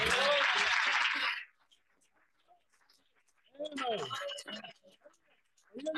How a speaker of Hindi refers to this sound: ताली बजाएंगे